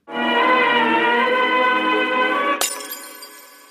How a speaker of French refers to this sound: On est parti. Jingle.